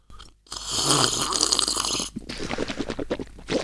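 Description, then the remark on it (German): Wet mouth sounds of someone drinking water from a glass: a long noisy sip, then a quick run of rhythmic gulps. No one speaks. “Ich trinke auch nochmal aus meinem Wasserglas.”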